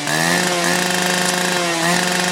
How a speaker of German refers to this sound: Ja, ja, super, ja klar, Motorsägen.